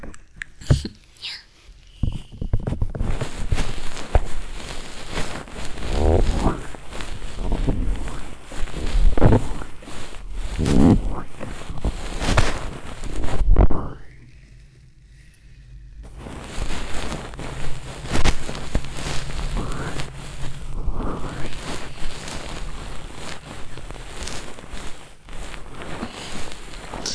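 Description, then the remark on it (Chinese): A goose feather ear pick brushes inside an ear, making soft, airy swishing and rustling in uneven strokes, with a brief quieter pause partway through before the brushing resumes. “那么，先用一个鹅毛棒开始吧。”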